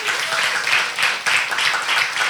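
A crowd breaks into a round of applause, dense overlapping claps forming a steady, loud wash of noise that swells in slight waves throughout.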